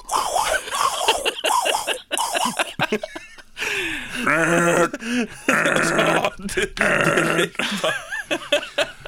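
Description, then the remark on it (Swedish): A person vocally imitates a delivery room heart monitor as an act on the talent show Talang, making loud, rhythmic whooshing and throbbing pulses with the mouth, repeated in quick succession with short breaks. “Eh, jag ska härma hjärtljudsmaskinen från förlossningen.”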